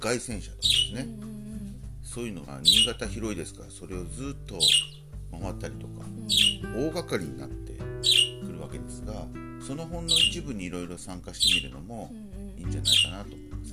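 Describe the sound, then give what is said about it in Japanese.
A bird squawks loudly and repeatedly in the background, sharp bursts roughly every one to two seconds, while a man keeps talking steadily underneath. “今ちょっと鳥がうるさくてすみませんけど、はい、参加してるつもりなんですね。”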